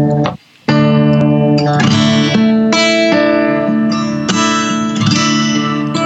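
An electric guitar drenched in effects rings out sustained, loud chords that shift every second or so, after a brief silent break near the start. No one speaks.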